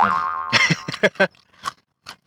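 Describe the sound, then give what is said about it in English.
Crunching from someone chewing peanuts: a rapid cluster of sharp, crackly bites, then a few sparser crunches trailing off. A brief ringing tone sounds just before the chewing begins. “I'm, eating, peanuts. Yeah, the peanutting sounds.”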